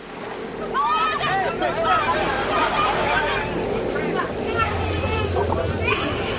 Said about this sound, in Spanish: Cuando los mares están en calma, todos suenan de forma similar. Pero estas olas empiezan a sonar distintas cuando piensas que estás delante de un auténtico cementerio.